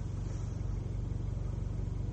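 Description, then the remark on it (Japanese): A bus drives past outside, its engine a low, droning throb that holds at a fairly even level for a couple of seconds with no voices over it. “民宿もああいうの持ってるし、うんそれで路線バスもああだと思うん、ちょっとね それだとさっきから結構通ってるよね”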